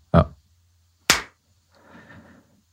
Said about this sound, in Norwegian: Jeg tror vi klappa Jeg tror vi klappa på nytt. Skal vi bare ta hele den seansen på nytt igjen, da?